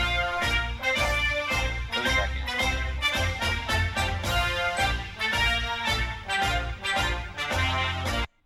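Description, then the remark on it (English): A loud, full band piece, the presidential anthem, plays continuously, with punchy low brass and drums in a steady march-like rhythm and bright horns on top, cutting off abruptly at the end. “Stupid, stupid song sucks.”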